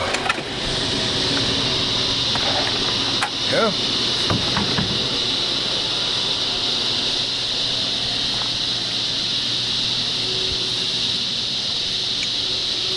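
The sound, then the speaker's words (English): A steady, high-pitched cicada drone fills the whole clip without a break, heard in a yard after Hurricane Irma during a break from lawn work, with a low vehicle rumble underneath and a single brief spoken word near the start. “But the cicadas are back with me now.”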